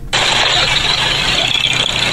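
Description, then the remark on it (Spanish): Steady engine rumble starts abruptly and holds, a loud idling motor with a broad hiss on top, in a traffic jam near Masari, heard from a motorcycle stopped for about 5 minutes. “Así el tráfico por la, el nuevo estudio de movilidad aquí en la a la altura de Masari. Ya llevo aproximadamente 5 minutos parado acá.”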